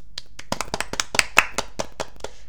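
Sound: hand clapping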